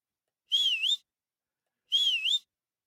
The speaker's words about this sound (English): Blow the whistle, ref.